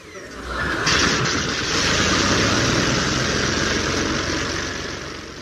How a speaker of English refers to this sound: So over now to a secret blacked out airship drone at Potter's Bar.